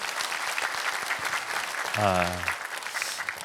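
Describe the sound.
A church audience claps steadily in encouragement after a member's testimony, a dense, sustained round of applause, with a brief voice rising over it near the middle before the clapping carries on.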